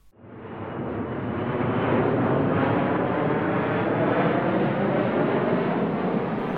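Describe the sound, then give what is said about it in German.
A loud, steady airplane roar rises within the first half second and holds a broad, rumbling drone for several seconds as the aircraft passes overhead, with no voices. “Manche Menschen verreisen auch mit dem Flugzeug.”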